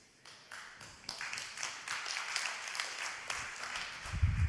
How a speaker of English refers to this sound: That was the weakest clap I've ever heard. It'll get better for them. But for those of you who tried, I love you.